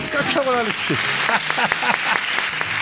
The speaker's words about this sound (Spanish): Esos aplausos que salen del alma. Fijaros, me gusta, me gusta poneros los aplausos y, tocaros un poco en la espinita y el corazón.